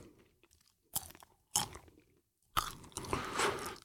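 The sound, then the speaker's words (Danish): Crunchy chewing of ready-made bagged popcorn: three sharp bites at irregular intervals, the last turning into a longer stretch of loud, crackling mastication. No talking. “hvis du lige vil tage en popcorn.”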